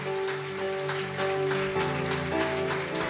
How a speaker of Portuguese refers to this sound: Então vamos aplaudir ao Senhor, vamos lá. Vamos lá, pode ser melhor, vamos juntos.